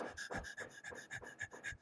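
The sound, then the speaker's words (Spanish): Quick, shallow panting, a person's rapid breaths puffing in and out in a steady rhythm, roughly nine short breaths in under two seconds, with no talking. “Si tú te sientes molesto o molesta, si estás, si estás con, con algo por dentro que quieres sacar, te vas a dar cuenta que tu respiración no va a ser profunda. Va a ser...”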